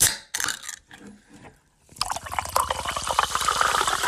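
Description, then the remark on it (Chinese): Sparkling water fizzing: a few soft clicks and rustles at first, then a steady, dense crackle of tiny popping bubbles that grows slightly louder over the last two seconds, with no talking. “各位听众，大家好，你好，你好，你好，让我们轻易听气泡水的声音。”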